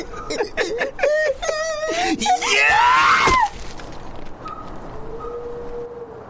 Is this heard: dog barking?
no